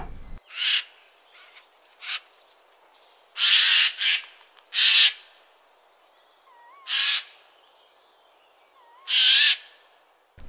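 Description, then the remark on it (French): A Eurasian jay gives a series of harsh, raspy screeches, about six irregular bursts that mimic a raptor's call. Faint thin whistles wander between them against a quiet outdoor background. “Et oui, vous vous êtes fait berner par un simple jet des chaînes, donc un vrai bout en train doué d'une capacité à imiter les chants des autres espèces avec brio.”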